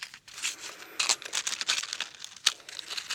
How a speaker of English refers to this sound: So, because this was written on a computer, um, to transition it, I am going to uh, light a candle. So, you'll hear me getting the match out.